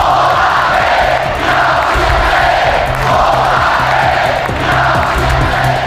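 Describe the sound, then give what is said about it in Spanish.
A large crowd shouts rhythmic political chants in unison, loud and continuous, with repeated swelling phrases and a dense roar of many voices throughout. “Estos han sido los gritos.”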